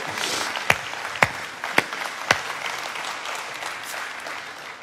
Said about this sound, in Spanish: Si usted se une con nosotros, dele gloria a Dios, den un fuerte aplauso a Jesús.